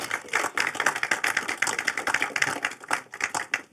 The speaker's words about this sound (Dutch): Jullie mogen naar voren komen. Geef ze ook een applaus, eh, dames en heren.